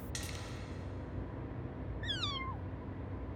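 A single short cat meow, rising then falling in a clear harmonic sweep, over a steady low background rumble, preceded by a brief click.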